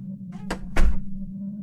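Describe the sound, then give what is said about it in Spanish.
A front entrance door shuts with a short rattling latch click followed by a heavy, low thud, over a steady low hum. “Estaba leyendo una historia en mi celular cuando escuché claramente cómo se cerraba la puerta de la entrada, anunciando que alguien había llegado.”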